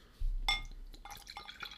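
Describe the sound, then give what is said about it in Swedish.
Saffron beer from Jack Daw Breweries, from a small bottle, is poured into a glass: a sharp clink of glass, then a quiet, bubbly gurgle of liquid filling and fizzing for about a second. “Då ska vi se. Får man glaset?”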